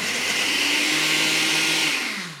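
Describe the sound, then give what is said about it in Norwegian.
A blender blends mango and ginger, running steadily at high speed, its loud motor whirring with a harsh grinding hiss, then the pitch sags slightly as it begins to wind down at the end. “Mango går i blenderen med ingefæren før den havner i et høyt glass med en klatt kokossorbé.”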